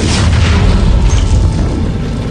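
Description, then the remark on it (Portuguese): A loud explosion of an explosive placed on a robot's head, with a deep, sustained rumbling boom and a scattered crackle of exploded debris falling to the ground, fading slightly over a couple of seconds, with no voices. “Aí você ouve assim caindo aqueles pedaços de, de coisas que foram explodidos no chão.”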